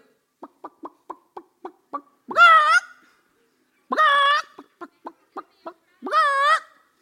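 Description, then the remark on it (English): A voice imitates a hen cackling in a hen house: quick runs of short, clipped clucks, each building into a loud, drawn-out squawk, repeated three times with no other talking. “They go in the hen house like they don't want you to see, but then they sit there and cackle the whole time, make sure everybody knows what they're in there doing.”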